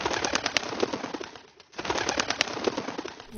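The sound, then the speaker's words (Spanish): Pigeons, a dense flurry of rapid wing flapping and fluttering that pauses briefly midway, then resumes just as busily. No one speaks. “Amenazan palomas.”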